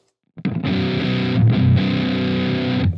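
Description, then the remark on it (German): Electric guitar played through a Big Muff fuzz pedal: thick, saturated fuzz chords ringing with long sustain, a brief change in the middle, loud and steady without any talking. “Ähm, dreh mal das Sustain, also der Gain-Regler beim Big Muff heißt Sustain.”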